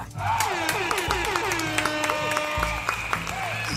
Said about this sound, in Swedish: Vi kör en applåd och en liten, liten tuta på det!